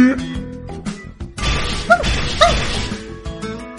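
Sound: dog barking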